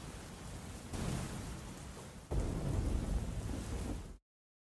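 Steady heavy rain hisses throughout while deep thunder rumbles build in two swells, the second louder, before the storm sound cuts off abruptly.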